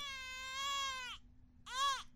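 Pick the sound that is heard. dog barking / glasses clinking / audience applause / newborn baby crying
newborn baby crying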